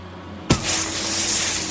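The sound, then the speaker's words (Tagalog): A vehicle's tire blows out during a trip to Aurora with one sharp bang, then a loud, steady rush of hissing air that carries on to the end, over a low humming drone. No one speaks. “Sabog ang gulong?”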